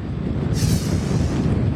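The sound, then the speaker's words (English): Strong storm wind roars at Wrightsville Beach in New Hanover County, North Carolina, near high tide, in a steady, heavy rumble, with a brief hissing gust rising midway before settling back into the constant low buffeting against the microphone. “I can see there's a lot of wind blowing there.”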